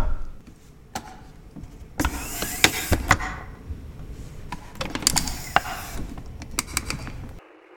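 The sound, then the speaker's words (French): Muffled rustling and scraping with a series of sharp plastic clicks and knocks as a helmet is put back on and adjusted, lasting several seconds with no one speaking. “Attendez deux secondes, je dois remettre mon casque.”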